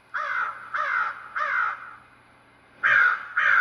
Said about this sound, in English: There go my crows. They're coming.